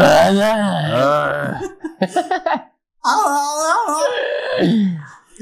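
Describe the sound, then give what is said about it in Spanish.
A man's voice imitates drawn-out, wavering moans, two long vocal wails separated by a few short grunting bursts and a brief silence, loud with no ordinary speech. “Pasas del pujido al gemido.”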